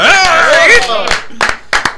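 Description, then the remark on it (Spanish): Loud, wavering voices cheer, then a few scattered, uneven hand claps ring out in short bursts. “Un aplauso”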